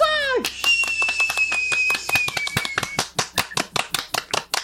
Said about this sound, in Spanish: Gracias, gracias, gracias, gracias. Me lo merezco. Y también el aplauso.